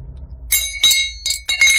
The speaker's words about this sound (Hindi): सीढ़ियों पर कुछ देखा जिसे देखकर हाथ में पकड़ी वो रॉड छूट कर गिर गई